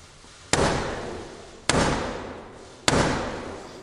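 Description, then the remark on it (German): Black Rod strikes the door of the House of Commons three times with a black staff, slow and evenly spaced, each loud knock ringing out with a long echo. No one speaks. “Dann nimmt Black Rod ihren, ihren schwarzen Stock, den sie hat, und klopft damit dreimal an die Tür.”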